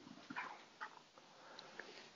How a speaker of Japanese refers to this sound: 泣いてるぞ、猫が。猫泣いてるね。隣の部屋